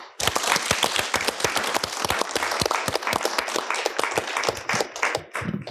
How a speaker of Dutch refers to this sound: Dus mag ik een applaus